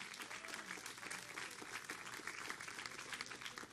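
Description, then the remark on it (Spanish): A church audience breaks into sustained applause for God (Jehovah), dense overlapping claps filling the whole stretch at a steady, fairly loud level with no pause. “Dale un fuerte aplauso a Jehová.”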